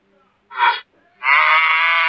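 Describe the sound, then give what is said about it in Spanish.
A voice imitates a cow's loud moo: a short call, a brief pause, then a longer sustained, strained moo, fairly loud, with no other talk. “Temprano a la mañana siguiente, la vaca mugió con todas sus fuerzas.”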